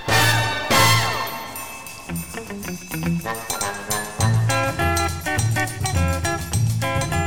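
A 1967 brass band recording plays loud and full, with punchy horn chords over a steady bass line and a crash of cymbal at the start, driving along rhythmically with no voices.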